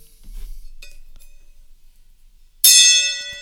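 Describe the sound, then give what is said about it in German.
A single gong strike rings out suddenly after a quiet stretch, loud, its bright metallic overtones shimmering and sustaining to the end with no talking. “So, Gong, schlagen Sie mal den Gong”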